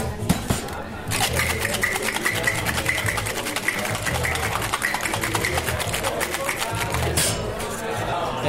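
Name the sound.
cocktail being shaken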